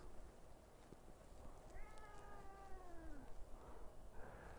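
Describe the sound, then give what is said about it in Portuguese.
José, a 14-year-old domestic cat, lets out one long, drawn-out meow that slowly falls in pitch over a steady background hum, with no talking. “Meu gato José quer participar da live.”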